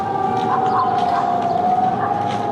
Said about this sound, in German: Elf Minuten dauert es, bis die letzte Sirene im Kreis läuft. Überall ertönt der an- und abschwellende Alarmton.